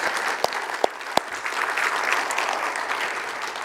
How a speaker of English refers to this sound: So I, I want to just recognize elders, and I think let's just say thank you to them by giving them a round of applause.